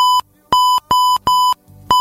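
Five loud electronic beeps, each a steady high-pitched tone, sound in a slightly uneven rhythm with short silences between them. No one speaks.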